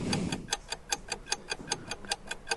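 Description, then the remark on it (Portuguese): A stopwatch, started to time someone bringing 10 books in 90 seconds, ticks in a quick, steady rhythm, about five sharp, bright clicks per second, fairly quiet, with a soft low rumble at the very start and no voices. “Vou ligar o cronômetro.”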